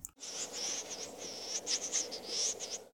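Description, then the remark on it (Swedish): A snipe's display dive: a thin, high-pitched whine from the tail feathers wavers and pulses continuously for a few seconds over a steady outdoor hiss. “Eh, när det börjar vina om, ja jag gissar att det är stjärtfjädrarna som skapar de här ljuden.”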